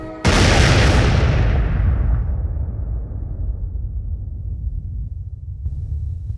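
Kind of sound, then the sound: sound effect, explosion sound effect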